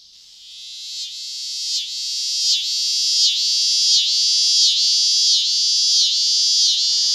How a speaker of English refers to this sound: And that's the the scissor grinder cicada